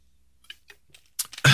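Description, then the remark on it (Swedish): Several small plastic clicks and crackles as the cap of a water bottle is twisted open, followed by a short rustle and then a sudden loud, noisy burst at the very end. “Ska bara ta en svälj av mitt vatten om jag kan få upp korken.”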